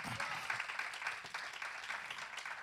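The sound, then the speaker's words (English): A crowd breaks into sustained hand clapping in praise of God, a dense, steady patter of many hands with no clear beat, holding at an even level throughout with no talking over it. “You ought to give God a hand clap of praise for helping us get right.”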